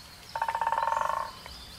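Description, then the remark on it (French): A toad gives a single fairly loud trilling croak, a rapid run of about sixteen even pulses lasting roughly a second, followed by one short faint note. “Plusieurs sortes de crapauds aussi se reproduisent avec des crapauds de la même grosseur qu'eux les gros crapauds ensemble et les petits crapauds ensemble.”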